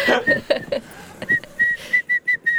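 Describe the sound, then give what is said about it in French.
Someone whistles a short tune: a few quick, bright notes, then a steady run of separate, evenly spaced pitches, clear and fairly loud against a quiet background. “C'est qui qui siffle là”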